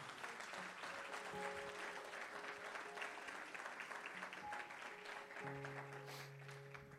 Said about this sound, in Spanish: Si usted lo cree, denle un aplauso fuerte ahora sí.